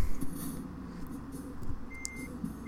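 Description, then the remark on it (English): A short, high electronic reversing beep sounds once over the steady low rumble of a car's engine, heard from inside the car with no one speaking, as the driver reverses at night in Leipzig with a car behind. “I'm just gonna reverse.”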